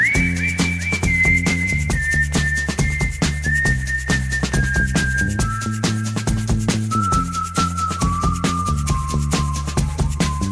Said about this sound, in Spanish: muchísimo en su momento con el silbidito eh, de esta canción